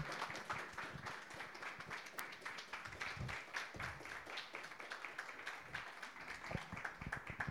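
Steady audience applause for readers after their reading, a dense patter of many hands clapping that holds at an even level for several seconds without rising or fading much.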